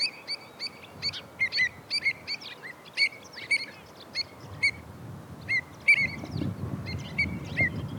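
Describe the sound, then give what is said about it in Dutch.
Repeated sharp, piping calls of pied avocets ring out in quick bursts across the whole stretch at their breeding area, where some four or five pairs nest this year with young walking about, over a low rumble of wind or water that swells toward the end. “Ze hebben hier eh, jongen, zeg jij, die kluten? Ja, ja ze broeden elk jaar is een gebiedje hier vlak bij mijn huis, maar eh, ja, dit jaar eh, denk ik een paardje of vier, vijf of zo.”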